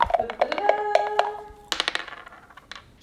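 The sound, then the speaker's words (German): Dice clatter across a hard surface in a quick burst of sharp clicks with a faint metallic ring, then a second tumble of rattling taps that trails off. “Okay, Leute, dann würfel ich mal, wenn das okay ist.”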